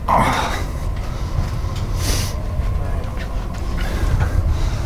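A steady, heavy low rumble inside a moving train, recorded in 2012, with occasional faint clicks and rattles over the continuous rolling noise and no one speaking.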